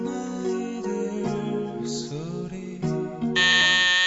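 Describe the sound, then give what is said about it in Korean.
A contestant presses the answer buzzer on a music quiz show: a harsh, sustained electronic tone rich in harmonics that lasts several seconds, shifting slightly in pitch and getting louder and brighter toward the end, with no talking. “택시 잘못 누르신 거예요? 진짜 누르신 겁니다?”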